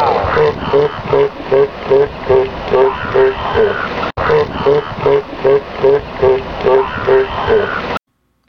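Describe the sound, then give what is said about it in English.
A seal barks loudly in a rapid, steady series of harsh, honking calls, roughly two or three per second, over a constant rush of wind and water noise. “And in case you've not heard what a barking seal sounds like, here's an example.”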